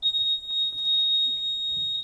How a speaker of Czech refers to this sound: Automatické skládání sedadel začíná začíná nepřeslechnutelným pípáním.